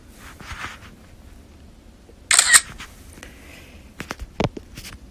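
camera shutter clicking

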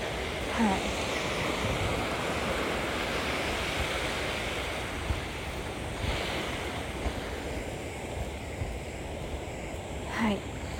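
ocean waves

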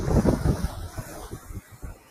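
ocean waves

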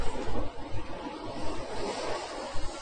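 ocean waves

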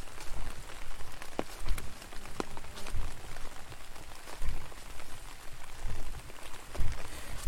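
rain falling

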